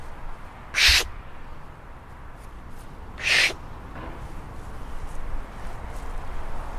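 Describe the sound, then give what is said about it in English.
A birder makes two short, breathy pishing bursts with the mouth to draw small birds in, spaced a couple of seconds apart, over a steady outdoor background rumble with no talking. “What is that that you're doing? Pishing.”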